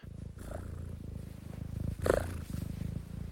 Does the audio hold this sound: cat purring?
yes